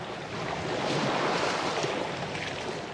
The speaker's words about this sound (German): Nahezu geräuschlos gleiten wir mit der Solarfähre Helio übers Wasser vorbei an einem kleinen Eiland